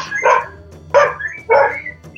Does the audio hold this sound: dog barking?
yes